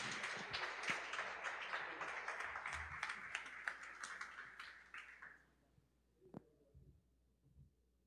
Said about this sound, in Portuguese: Quem pode aplaudir o Senhor pela vida do pastor?